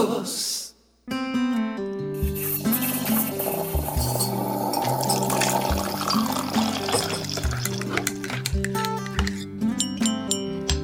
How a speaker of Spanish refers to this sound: Óyelo ahí, esa es la campanita, digo la campanita, no, la cucharita que nos encanta escuchar aquí en 12 y 2 cuando vamos a hablar de café, cuando tenemos a grandes amigos sentados nuestro, eh, en, en, nuestra sala de cafecito.